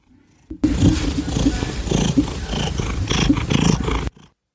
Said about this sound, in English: All right, that might have been a little bit too loud. That that sounds like a cat large enough to devastate downtown Tokyo.